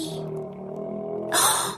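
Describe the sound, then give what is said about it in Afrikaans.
A voice imitates a hungry stomach growl: a low, steady, drawn-out groaning rumble that ends in a short breathy hiss. “Ehm, um, dit is my maag wat so gor kammy van die hongerte.”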